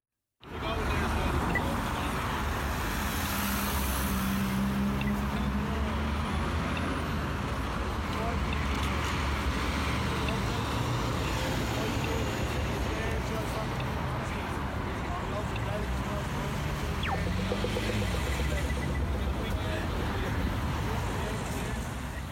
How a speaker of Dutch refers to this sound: Dit was dus een stoplicht in Dublin. Maar ja. geluid. Dat, ik hou enorm van dat soort stadsgeluiden. Precies. Kijk, en dat wist ik. En dit geluid van dat, dat het licht groen wordt, dat is een soort van vogeltje of hachi achter zo. Een soort vink.